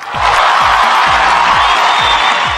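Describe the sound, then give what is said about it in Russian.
Loud, sustained applause from a crowd closing a congratulations segment, a dense steady roar of clapping with some cheering, over a regular low thumping beat repeating about twice a second. “оглушительными аплодисментами завершить поздравительную нашу часть, перейти к нашим обычным темам”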